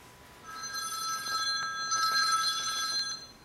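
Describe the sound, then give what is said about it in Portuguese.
A telephone bell rings in two steady bursts with a tiny pause between them, in Porto Alegre in the morning. The bright, shrill tone is clear, with nobody speaking. “Alô? Tô aqui, porra! Todo mundo desligou os telefones.”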